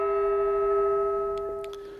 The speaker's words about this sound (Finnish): Joo. Siinä oli viimeinen kongin kumahdus